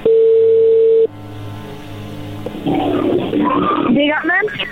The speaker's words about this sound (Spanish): Ok, no haya ruido, se está marcando.